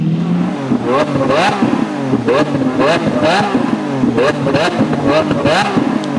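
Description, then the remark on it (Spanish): A loud engine revs over and over in quick bursts, its pitch climbing sharply and dropping back each time, like a powerful car being throttled. “Oye, brother, quiero pensar cuánto va a costar el último auto Lamborghini de con motor. Eh, de, de, gasolina.”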